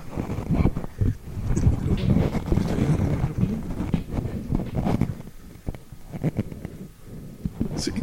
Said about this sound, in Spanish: Eh, ya les hice ruido eh, con esponja, ¿verdad? Tengo, en los dos tengo una esponja antipop. Bueno, llaman, le llaman eh, para viento, ¿no? Pero también eh, evita, ayuda.